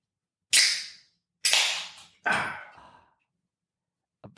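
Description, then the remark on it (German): A beer bottle being opened without a crown cap: three sharp bursts of fizzy hiss, each fading within about half a second, evenly spaced, with no talking. “Da, was ich da in dem Kühlschrank gesehen habe, hatte alles Kronkorken und das hörte sich eben gerade nicht an wie ein Kronkorken. Nee, aber der Inhalt ist derselbe.”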